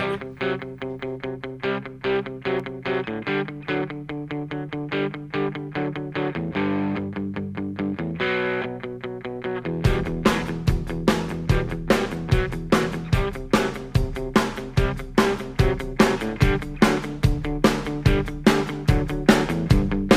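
A rock song plays on air with no talking: a guitar-led intro with steady strummed chords, then a full band with driving drum hits kicks in about halfway, loud and upbeat.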